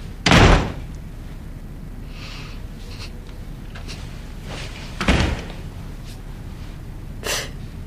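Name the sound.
door being shut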